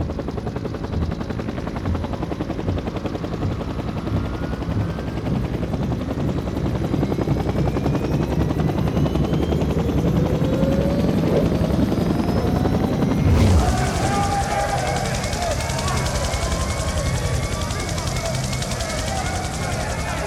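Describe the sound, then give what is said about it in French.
A loud helicopter with steady rotor chopping and a rising turbine whine throughout, its sound shifting abruptly partway through as the engine pitch and roar change. “celui qui devait s'évader, est monté dans l'hélicoptère. Ils ont essayé de partir, ils n'ont pas réussi.”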